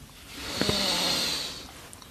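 A single deep breath drawn in through the nose during a guided breathing exercise, an airy rushing sound that swells and fades over about two seconds, with no talking.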